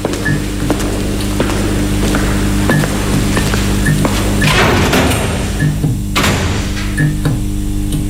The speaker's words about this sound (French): Ne pas être surpris signifie anticiper le bruit ultra sec et brutal des loquets et verrous se faire surprendre par ce son fait sursauter, donne un coup au cœur, une montée de stress, et ce, sans raison. C'est biologique, animal, je dirais.